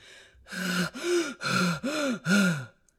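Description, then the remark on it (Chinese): Heavy, out-of-breath panting: five loud, rhythmic gasping breaths in quick succession, each with a strained, voiced groan in it, from someone worn out and sweating after scrubbing and wiping a shop clean. “刷呀擦呀，累得气喘吁吁，汗流浃背。”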